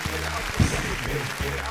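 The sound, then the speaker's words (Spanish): Steady, dense clapping from a studio audience applauding for the Hora Hip Hop program, a continuous crackling patter that holds at an even level for under two seconds, with low voices murmuring underneath. “Aplausos desde el fondo, por favor, por Hora Hip Hop, la verdad.”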